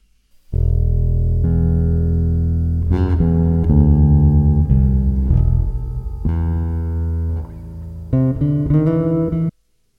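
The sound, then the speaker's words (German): A bass line with reverb steps through a slow run of sustained, buzzy low notes, loud, with one brief dip near the end before stopping abruptly. No one talks. “So, und jetzt habe ich auch Hall drauf gemacht und dann klingt es bei mir so.”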